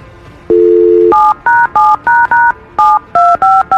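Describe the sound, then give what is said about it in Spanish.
Touch-tone telephone dialing on a radio show, calling a caller's fiancé: a steady low dial tone for about half a second, then around ten quick two-pitch keypad beeps in an uneven rhythm, loud and with no voices. “Vamos a marcarle a tu prometido y te deseamos que pase lo mejor.”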